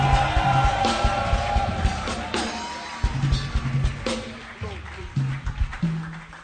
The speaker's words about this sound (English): Everybody stand to your feet. This is Reverend Prophet Stephen Obeng Amoako. Help me with a shout and a celebration. Are you celebrating him? If you don't scream.